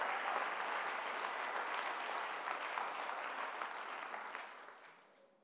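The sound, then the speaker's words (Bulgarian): Sustained applause from a large audience, a dense steady patter of many hands clapping that holds strong for several seconds before gradually tapering off at the end. “О, хайде, ако ръкопляскаш, ръкопляскай, като че наистина вярваш.”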